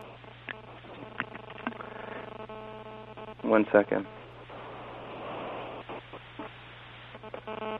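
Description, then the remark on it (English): A steady electrical buzz of interference hums through a narrow, telephone-quality line during a phone call, running beneath brief speech and scattered clicks, with a louder burst of crackling noise midway. “I'm sorry, I don't know what that buzzing sound is.”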